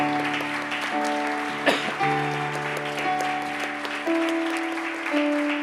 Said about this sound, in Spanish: Demos un aplauso al Señor Jesús. Gracias.